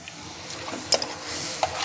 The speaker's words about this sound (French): On va prendre du vin blanc parfumé qu'on va déglacer. On entend le bruit du déglaçage.